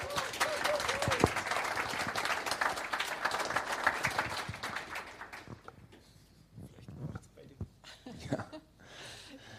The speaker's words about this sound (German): Herzlich willkommen nochmal mit einem kräftigen Applaus